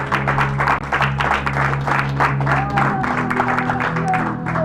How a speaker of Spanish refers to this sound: Denle palma al Señor y alaben al Señor.